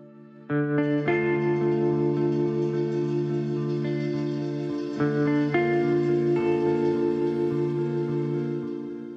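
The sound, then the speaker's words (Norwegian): A loud, sustained electronic drone meant to mimic ringing in the ears, thick and buzzy with layered tones that shift pitch a few times and hold steady for several seconds, no voices. “Jo, det er lyd her, se. Da har jeg fått tinnitus.”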